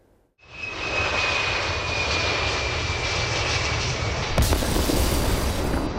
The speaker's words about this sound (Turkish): Uçak pistten çıkıp toprak alandan aşağı doğru sürüklenip parçalara ayrıldı. Üç parçaya ayrıldı uçak. İstanbul'a iniş sırasında kuvvetli rüzgarı arkasından aldı.